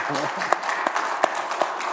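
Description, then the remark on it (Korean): A church audience applauds its worship accompanists and worship team with dense, steady clapping that fills the whole stretch, a few sharper claps standing out, while a voice briefly speaks underneath at the start. “정말 이분들에게는 진짜 박수 쳐주고 싶어요”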